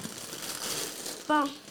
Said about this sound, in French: Avec un faux papier d'emballage hein, avec les circulaires, mais là, on va l'enlever parce qu'il est emballé pour vrai. ça fait scrunch crunch dans les oreilles. OK, bon. Bon. Bon, on va enlever ça. Oups, c'est pas grave. On va tout déballer ça.